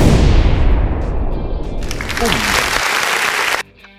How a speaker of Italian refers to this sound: ci buttiamo una risata proprio in stile loud anni 80 proprio perché se lo merita il nostro caro amico e anche un esplosivo applauso